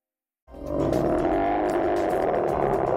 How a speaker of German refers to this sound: So klingt ein ausgewachsener Eisbär.